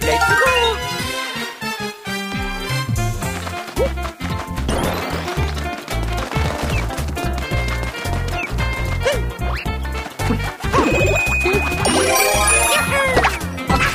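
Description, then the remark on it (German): Bright, upbeat video game soundtrack music plays steadily throughout, with bouncy bass, punchy percussion and sparkling chime-like melodies layered on top, loud and continuous with no talking. “Vor allem auch mit dem echt tollen Soundtrack.”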